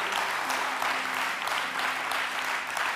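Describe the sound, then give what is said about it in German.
An audience applauds steadily to thank a speaker for his message, a dense continuous patter of many hands clapping at an even loudness throughout, with no voices standing out above it. “Und ich glaube, wir können Jan nochmal einen großen Applaus geben und bedanken für die Message.”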